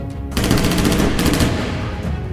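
A loud burst of rapid gunfire rattles off in quick succession for about two seconds, the shots blurring into a continuous, harsh clatter with no voices.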